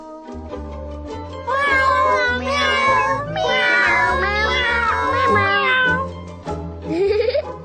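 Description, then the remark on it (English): A cat meows loudly in a string of long, wavering, drawn-out cries over a steady low beat, ending with a short rising meow. “this is my cat.”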